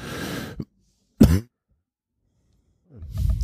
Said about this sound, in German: Hopsasa, da hat, da hat der Husten wieder zugeschlagen. Wir sind heute auch wirklich angeschlagen.